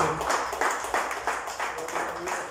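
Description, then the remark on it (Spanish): Audience applause given to the Lord Jesus at night: a crowd clapping steadily and fairly loudly, with many overlapping hand claps forming a dense, rhythmic patter that holds throughout. “Denle un aplauso al Señor Jesús, por favor, esta noche.”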